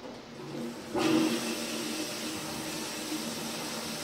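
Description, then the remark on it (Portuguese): A toilet flush in a video game, triggered by pressing the Enter key, bursts in after a second of quiet hiss: a sudden loud whoosh of rushing water with a low gurgling tone, settling into a steady broad rush that carries on to the end. “A letra E, ele vai fechar a tampa e a letra Enter, ele vai dar a descarga.”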